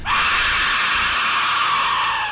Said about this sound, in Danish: Vi tænker med uhygge tilbage på den gang, vi hørte den her lyd. Hold kæft, hvor var det nøjeren. Vi ved jo godt, at aztekernes dødsfløjte er kåret som den uhyggeligste lyd i verden.